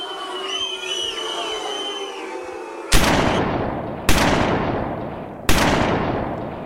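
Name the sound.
three gunshots fired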